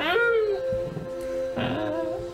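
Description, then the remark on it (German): A voice imitates a rusty rooster weathervane squeaking as it settles on top of a roof and turns with the wind: two drawn-out, wavering, creaky squeals with a short gap between them, fairly loud. “und ein rostiger Wetterhahn mit zwei Flügelschlägen sich oben festsetzen, hört nur das Quietschen”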